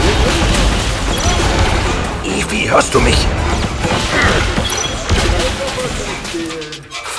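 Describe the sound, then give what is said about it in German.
Dense, continuous gunfire shooting away the speakers' cover, with sharp cracks and crashing impacts of the cover breaking apart, loud, while a voice calls out briefly over the chaos. “Verdammt, die ballern uns die Deckung weg.”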